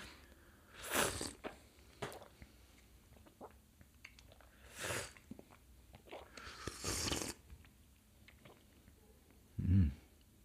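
food or drink, slurping hot tea

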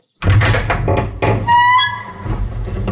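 household object, knocking on a door

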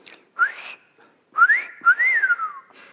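human body sound, person whistling

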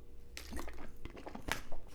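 human body sound, sipping and swallowing water

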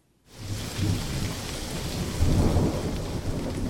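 nature, thunderstorm with heavy rain

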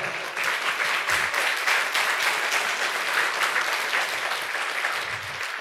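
crowd, audience applauding

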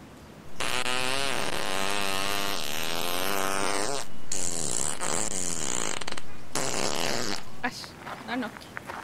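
sound effect, fart sounds

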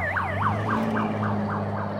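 vehicle, police car sirens

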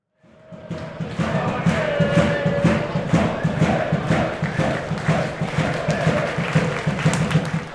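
crowd, football stadium crowd

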